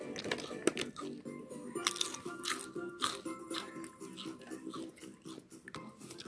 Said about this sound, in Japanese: テレビとかだと、なんかね、この咀嚼、咀嚼音を聞きながら寝たりするみたいなね。そんなんが流行ってるみたいなね。うん。どこまで流行ってんだよって感じもするけど、あ、まあそんなんもいいかなと思って、今あの、ちょっと食べてみました。